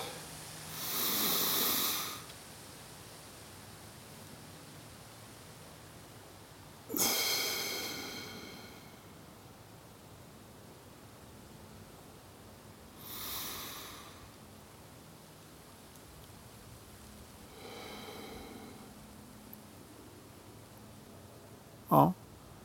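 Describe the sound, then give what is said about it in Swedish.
Four or five slow, deep breaths, in through the nose and out through the mouth, each a soft airy rush several seconds apart, fairly quiet against a faint hiss, with no talking. “Så att, eh, ta några djupa och långsamma andetag och andas in genom näsan och sen testa att hålla andan någon sekund eller några sekunder och sen blåser du ut sen genom munnen.”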